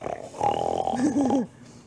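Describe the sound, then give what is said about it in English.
A person loudly imitates a snarling snore, a rough, growling rasp lasting about a second and a half with a gravelly, throaty pitch sweep before cutting off. No words are spoken. “snarling that would make angry like junkyard dogs jealous.”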